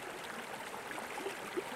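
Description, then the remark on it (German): Water from a spring in the Val de Travers, canton of Neuchâtel, Switzerland, rushing in a steady, continuous hiss, fairly soft, with faint gurgling accents and no voices. “In den Klang dieser Quelle habe ich mich verliebt.”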